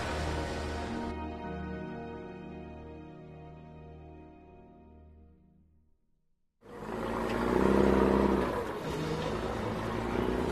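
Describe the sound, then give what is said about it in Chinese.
A container truck carrying rare birds starts its engine and hums with a steady low drone that gradually fades, goes briefly quiet, then returns as a louder rumbling roar as it drives out of a factory building through an automatic door. No one speaks. “这时，耍猴人急匆匆的走出来，上了车，发动引擎。厂房的大门自动打开，装着一群珍稀鸟类的货柜车开出了厂房。”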